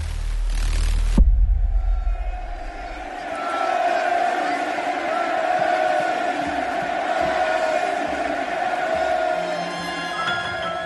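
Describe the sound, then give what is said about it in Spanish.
A huge stadium crowd at FC Barcelona's Camp Nou roars in a sustained ovation for Lionel Messi, a dense wall of cheering and shouting that swells and holds steady for several seconds after a brief burst of noise at the start. “Esto que estamos oyendo, Sebastián, es una ovación de todo el Camp no a Messi.”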